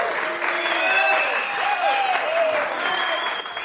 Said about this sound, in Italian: Due o tre studenti alle mie spalle protestano. Parte una bordata di fischie, vaffanculo!